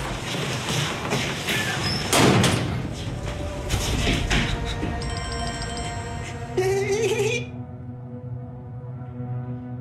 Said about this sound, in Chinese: 由于对小黑的不满，阿宅和阿山故意把尸体砸在地上，发出了巨大的响声。